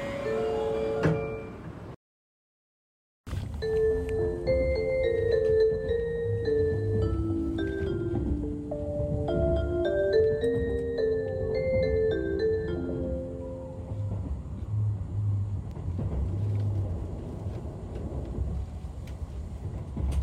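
A bright, electronic chime melody plays inside a train, its clear tones stepping up and down over a steady low rumble of the moving carriage, after a brief moment of silence.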